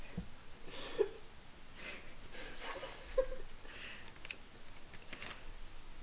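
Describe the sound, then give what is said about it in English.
Scissors being used to cut a person's hair are handled, rustling quietly, with a few sharp metallic snips and clicks spaced a couple of seconds apart as the scissors get stuck. The sounds are soft and intimate, with no one speaking. “I'm just gonna. I, my scissors are stuck, so I'm just gonna”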